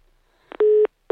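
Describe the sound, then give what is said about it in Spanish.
A steady electronic telephone tone sounds in loud, even pulses after a phone call is cut off, one long beep followed by a pause and another starting, like a disconnect signal on a line. A couple of soft clicks precede it. “mire, yo creo que nos cortaron el teléfono, pero por sangrones, yo creo más bien, ¿no?”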